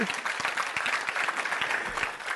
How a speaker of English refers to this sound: I'm going to wait while 10 people clap their hands.